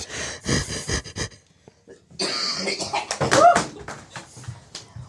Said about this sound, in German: So, Achtung, ich huste. hört man es trotzdem? Ja, aber nicht so laut. aber hört man den Schleim? Hm. Ja, das war der Schleim.